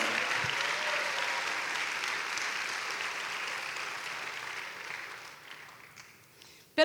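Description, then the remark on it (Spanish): A church audience claps steadily for about five seconds to give glory to God, a dense, continuous wash of applause that gradually thins and fades out near the end. “Dale un fuerte gloria a Dios.”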